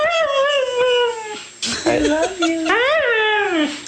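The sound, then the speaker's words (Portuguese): A dog from a YouTube video howls in long, wavering, voice-like tones, its pitch rising and falling so the yowls sound like the phrase "I love you". Loud, with a brief break midway. “ou o cão que diz I love you.”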